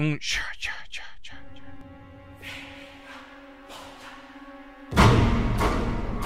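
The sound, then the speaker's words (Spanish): A quick run of breathy, whispered syllables in a rhythmic burst, a subtle nod to Jason's theme from Friday the 13th in the soundtrack of the film Martes 13, gives way to a low sustained musical drone before a loud rush of noise. “en la banda sonora se escucha muy sutilmente un guiño al tema de Jason en, Viernes 13, en Martes 13.”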